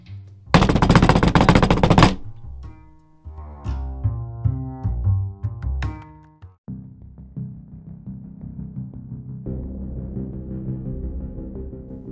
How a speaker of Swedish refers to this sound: Det är på dörren igen. Det är ett helt annat, mycket mer desperat eh, knackande den här gången.